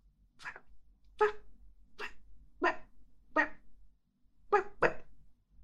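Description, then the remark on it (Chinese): A person imitates a dog barking with seven short, sharp woofs, evenly spaced at first, then a pause before a final quick pair. Moderately loud, with no other talking. “学狗叫，好啊！”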